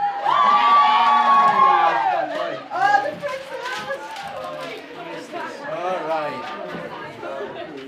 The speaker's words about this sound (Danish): Fredag den 29. april markerede den internationale højskole i Helsingør sin 100-års fødselsdag. Det vi hører her, det er en masse glade elever, der vifter med papirsflag.